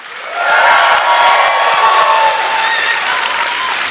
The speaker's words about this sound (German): Der lauteste Applaus des Abends bitte